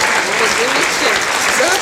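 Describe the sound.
Steady audience applause as a Siberian herbal doll is presented as a gift to a museum, a dense crackle of many hands clapping at once, loud and even throughout with a faint murmur of voices mixed in.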